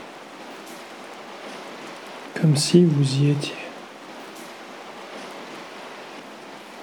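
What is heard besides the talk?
rain falling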